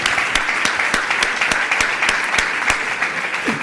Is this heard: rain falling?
no